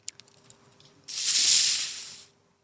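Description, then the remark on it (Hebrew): A few soft plastic clicks, then a carbonated soda bottle is twisted open with a sudden, loud fizzing hiss that lasts about a second before tapering off. No one speaks. “תפתח, תפתח את זה.”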